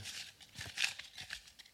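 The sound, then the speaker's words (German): A question card is pulled from a deck with a quick paper rustle: several soft crinkly scrapes in a row over under two seconds, fairly quiet, with no talking. “Ja, zieh die Karte, die, äh, zieh die Frage auf der Karte. raschel, raschel.”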